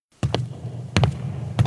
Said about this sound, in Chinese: 巨大脚步声。 是我先生回来了。